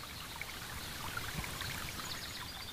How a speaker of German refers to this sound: Fröhlich sprudelt das Wasser der Quelle auf einen sehr großen Stein, der schon völlig ausgehöhlt ist von dem Wasser.